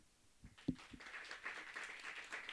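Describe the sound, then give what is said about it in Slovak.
An audience at a discussion event bursts into applause to thank the guests, after a few sharp opening claps, settling into a steady, dense patter of many hands clapping at moderate volume, with no talking. “Ďakujem ešte raz vám všetkým a pomôžte mi prosím poďakovať potleskom aj našim dnešným hostom”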